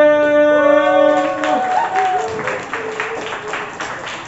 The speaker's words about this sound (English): please give a huge round of applause to your host for the first half of the night